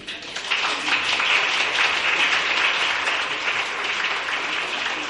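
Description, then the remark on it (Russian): Sustained audience applause after a choir's stage performance, a dense, steady wash of many hands clapping that swells quickly at the start and holds at an even, loud level throughout, with no voices standing out. “Спасибо, я думаю, что эти аплодисменты и выпадают и на долю нашего замечательного хорового коллектива.”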